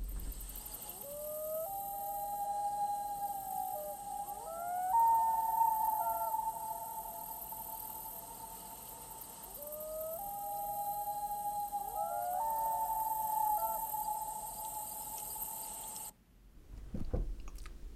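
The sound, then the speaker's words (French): A loon calls across open air: two long, rising-and-falling wailing phrases that echo hauntingly over a steady background hiss. No one speaks, and a brief dull thump follows at the end. “Le mot en anglais, il est encore plus évocateur. Loon.”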